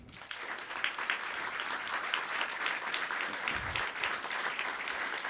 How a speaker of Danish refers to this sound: bare, at I klapper og stopper med klap, når, øh, når vi når dertil, hvor I mener, at øh, Rasputin han skal være på, på barometeret. Det er præcis. Det er præcis. Er det ikke det, vi gør? Det er det, vi gør. Okay. Så, øh, I starter bare med at klappe.